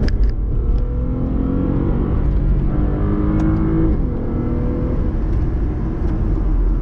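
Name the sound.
car engine revving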